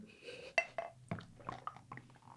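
A drinking glass of water clinks several times as it is picked up, handed over and set down, sharp bright taps with soft handling noise between them.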